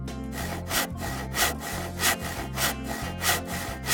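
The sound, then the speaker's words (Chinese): Barnaby, a carpenter's child, saws wood with a handsaw in steady, rhythmic back-and-forth strokes, about seven rasping pulls in quick succession, with low background music underneath and no talking. “他知道怎么锯木头，先拿个锯子，”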